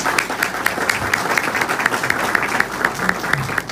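A crowd claps steadily in a dense, continuous round of applause, many hands striking at once with a bright, crackling texture that holds an even loudness throughout.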